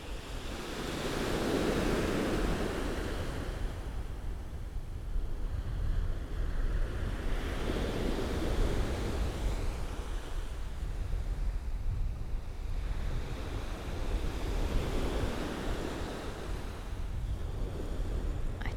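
Waves break on Chesil Beach in a steady cycle, each surge swelling and washing back about every six seconds, with wind buffeting the microphone throughout. No one speaks.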